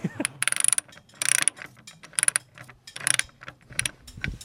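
A ratchet wrench clicks rapidly in four or five short bursts as mechanics check and tighten bolts during the annual bolt inspection of Troy, a wooden roller coaster, with brief pauses and lighter metallic knocks between the bursts.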